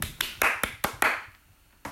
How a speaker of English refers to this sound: Give, give yourself a round of applause again.